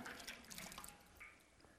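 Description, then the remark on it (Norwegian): Water trickles and drips in a quick, irregular patter, with small bright plinks over a soft liquid wash; fairly quiet, with no voices. “Vann.”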